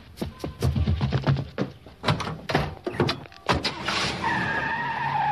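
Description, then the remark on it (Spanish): A door closes amid a flurry of sharp knocks and thumps, followed by a sustained squealing whine toward the end; no one speaks. “Se escucha que se cierra la puerta.”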